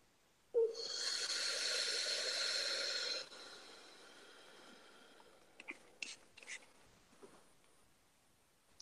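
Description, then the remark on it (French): A single deep breath drawn in, a loud airy rush lasting a few seconds, then fading into a soft, quiet exhale with a few faint clicks. “Une respiration.”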